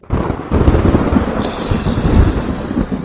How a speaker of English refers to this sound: All right, insert crack of thunder.